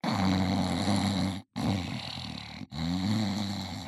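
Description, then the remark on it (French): A voice imitates a brother's loud, rough, irregular snoring, a throaty rumbling roar in long, heavy bursts broken by two brief pauses, forceful throughout. “Ce qui fait que mon frère ronfle, mais ronfle à réveiller les morts.”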